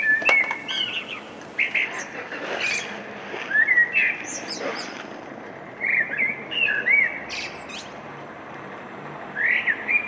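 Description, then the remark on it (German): Several birds chirp and twitter outdoors on a balcony in spring, with short bright calls repeating throughout over a steady background hiss of ambient noise, fairly clear, with no talking. “Ein Vogelgezwitscher, das ist ja schon Biolarm, wie wir Golfer sagen, wenn wir unseren Golfschwung machen und die Vögel in den Bäumen zwitschern oder irgendwelche anderen Viecher.”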